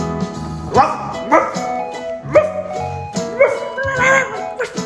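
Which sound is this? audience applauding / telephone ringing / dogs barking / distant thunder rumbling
dogs barking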